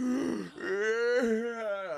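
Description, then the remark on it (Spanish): A person imitates a long, exaggerated yawn, as someone does when another person is talking, a drawn-out voiced groan that dips briefly and then rises and stretches into a sustained, wavering tone, fairly loud, with no other talking. “porque bostezando, porque le está diciendo cuando una gente está hablando y, otro le hace”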